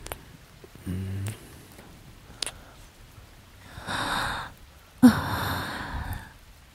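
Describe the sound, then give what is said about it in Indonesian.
A long, deep breath drawn in, heard faintly amid pouring rain at a basecamp, followed by a second breathy exhale-like rush of air, with a few soft clicks and rustles before it and no talking. “Tarikan nafasku yang cukup panjang ini terdengar sayup di antara guyuran hujan.”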